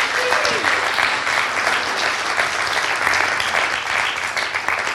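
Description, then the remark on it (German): A large church service audience claps steadily and loudly for several seconds to welcome the Hilpoltstein site joined live, a dense wash of applause filling the space, with faint voices mixed in underneath. “Lasst uns doch Hip mal mit einem fetten Applaus begrüßen.”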